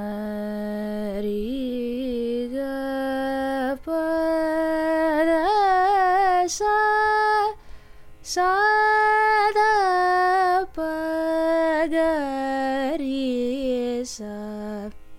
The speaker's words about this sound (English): So, the raga we'll be working with is called Mohanam. Mohanam's ascending and descending scales sound like this.